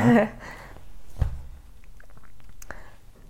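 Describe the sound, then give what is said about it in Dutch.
A brief vocal sound opens, then a soft gulp with small wet mouth clicks and smacks, like someone swallowing a drink. “Neem ik even slikken.”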